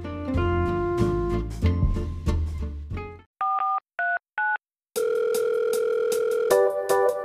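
Music gives way to a few quick keypad beeps, then a steady electronic telephone ring tone sounds clearly for a couple of seconds before music returns; no one speaks.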